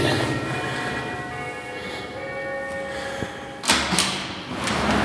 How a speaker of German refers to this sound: Dann Klingeln wir mal hier und gucken, ob wir da jemanden kennen.